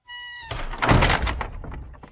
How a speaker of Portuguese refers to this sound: E, de repente, a porta da casinha abriu de uma vez só, fazendo um barulhão.